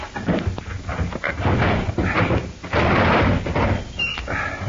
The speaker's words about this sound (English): Locked. Hand me that poker from the fireplace. All right. Thanks. We'll pry the drawer open.